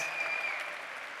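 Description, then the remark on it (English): An audience claps steadily in a dense, sustained round of applause to thank graduating seniors for their work at their last chapel, at an even volume throughout the short stretch, with no voices standing out. “Would you thank them for all the work they do?”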